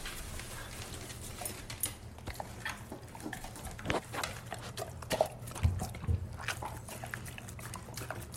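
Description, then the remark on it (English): Two dogs eat cake, with wet smacking, licking and chewing in irregular bursts, plus occasional snuffling breaths and small clicks. No one speaks. “Yeah, yeah, so the dogs liked it, which means it's definitely a great cake.”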